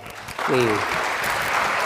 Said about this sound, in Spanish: Amén, bien, bien. Un fuerte aplauso.